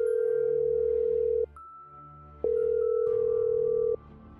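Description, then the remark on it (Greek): A telephone line rings twice during a call to the police, each long steady electronic tone lasting about a second and a half, separated by a short pause, loud as if heard through the handset. “Ακούστε πώς πήγε το τηλεφώνημα.”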